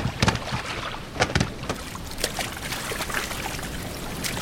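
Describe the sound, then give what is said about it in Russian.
A small boat moves through the water of the Neva River toward a fortress being built on the opposite bank, with steady splashing and sloshing and a few sharper paddle-like strokes near the start, fairly loud, with no voices. “Садитесь в лодку и поплыли в крепость, что на том берегу строится”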